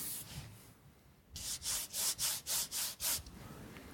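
Fingers rub back and forth across a matte vinyl record sleeve in about six quick, even strokes, a bright, dry, papery swishing after a brief quiet moment, with no talking.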